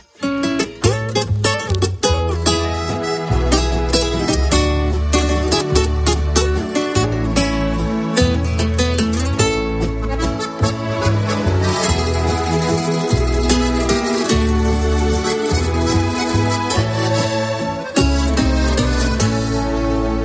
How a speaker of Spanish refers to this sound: la voz argentina que presenta su nuevo álbum natural y que suena así